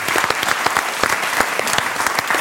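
An audience claps loudly and steadily, a dense wash of many hands with no voices on top, sustained evenly for a couple of seconds.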